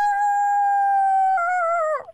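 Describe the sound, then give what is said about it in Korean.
A person calling in by phone from a rooftop on a hot heatwave-advisory day imitates a rooster crowing with one long, loud, steady held call that shifts slightly in pitch partway through, then breaks off with a quick falling tail. “닭소리는 좀 하거든요.”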